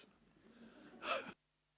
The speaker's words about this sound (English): Look at your neighbor and say, He's about to blow his nose.